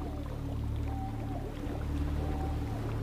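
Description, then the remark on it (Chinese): A steady, continuous wash of rushing water with a deep low rumble underneath and a couple of brief high whistling tones drifting over it. No one speaks. “你能感觉到阵阵水流从你身边快速经过，大大小小的水珠轻轻溅洒到你的全身”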